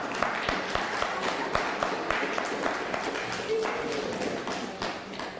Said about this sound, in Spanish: Un fuerte aplauso, un talmud.